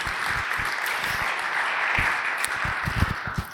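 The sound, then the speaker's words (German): Sustained audience applause from a crowd for a band after its music, a dense wash of many hands clapping at steady volume for several seconds, with some sharper individual claps standing out near the end. “Ich finde, das ist auch nochmal ein Applaus wert.”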